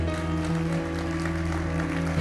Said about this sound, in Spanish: Da un fuerte aplauso al Señor.